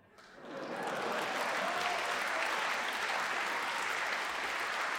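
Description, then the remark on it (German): At a bakery purchase of two pretzels, a bag rustles loudly and continuously, a dense, crackling crinkle that swells in within the first half second and keeps going without pause. No one speaks. “Und man hat die laute Tüte gehört, möchte ich auch nochmal anmerken an der Stelle.”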